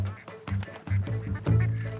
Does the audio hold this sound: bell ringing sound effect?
no